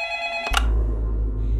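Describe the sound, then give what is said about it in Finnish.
A landline telephone on a desk rings with a bright, buzzy electronic tone for about half a second, then cuts off into a low rumbling hum as the line seems to pick up. “Aloin olla jo melko epätoivoinen, kunnes lankapuhelin pöydälläni soi.”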